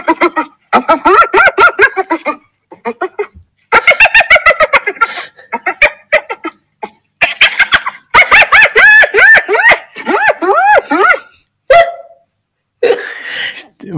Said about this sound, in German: Nee, es ist kein Seehund, äh, es ist aber ein Tier. Ein Tier, das so klingt, als würde es kichern. Es ist eine Hyäne.